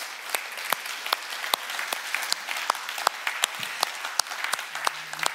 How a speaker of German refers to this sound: Können wir dem Gott mal einen Applaus geben, dem richtig, richtig guten Gott.